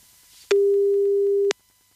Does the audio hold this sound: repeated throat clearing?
no